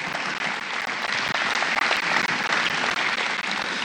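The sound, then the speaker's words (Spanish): Steady, dense audience applause for the actors and actresses, filling the whole stretch, a loud wash of many hands clapping at once with no pauses and no talking over it. “Fuerte aplauso a nuestros actores, actrices en este caso.”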